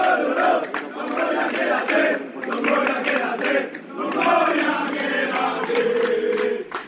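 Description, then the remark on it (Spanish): A big crowd of Valencia football fans cheers and shouts continuously as Marcelino García Toral and Pablo Longoria leave the club in September 2019, a loud, dense roar of many voices that swells and dips slightly without ever stopping. “Marcelino García Toral y Pablo Longoria abandonaron el club vitoreados por aficionados.”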